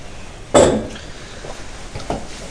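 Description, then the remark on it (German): A wine glass clinks once with a sharp, bright strike that rings out briefly, followed by a couple of faint, softer knocks. No one speaks. “So, Glas mal nicht verdötzeln.”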